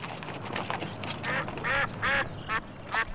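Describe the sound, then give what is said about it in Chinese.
Ducks in a pond quacking in a rapid, overlapping series of nasal, raspy calls, several loud quacks standing out toward the end, with no voices present. “哎，那边的池塘里有鸭子，太好了，抓来做烤鸭。”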